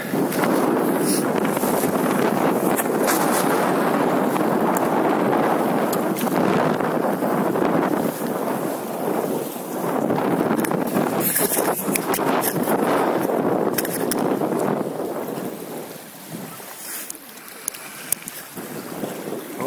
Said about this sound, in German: Also für den Wind kann ich hier beim besten Willen nichts. Damit müsste ihr jetzt einfach leben.